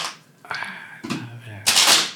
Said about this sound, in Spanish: Aquí vamos a, barajar para que no digan que hay trácalas.